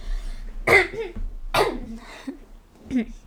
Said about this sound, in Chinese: 哎，我声音怎么越来越难听掉？我要在旁边咳一下。